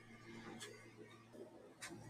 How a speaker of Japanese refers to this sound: 確かにこのね、皆さん聞いてください。それでは聞いてください。冷蔵庫のブーンという音。これじゃあ BGM にはならないですね。